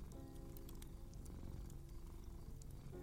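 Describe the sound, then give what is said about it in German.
A cat purrs steadily, a continuous low rumbling vibration that holds evenly for the full few seconds with no voices over it. “Wie kommt diese Katze hier jetzt her?”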